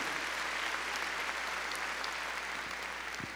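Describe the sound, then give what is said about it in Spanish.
A church audience claps hands loudly for the Lord during a Spanish-language sermon, a dense, steady wash of many overlapping claps that holds at a constant level for several seconds with no voices standing out. “A ver, démosle palmas fuertes ahí al Señor.”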